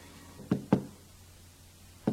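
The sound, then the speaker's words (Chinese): Three knocks on the door of a brother's house: two quick raps in succession, a pause of over a second, then a third knock. The low, thudding hits stand out clearly against a quiet background with no talking. “开门呐，哥哥，开门呐！”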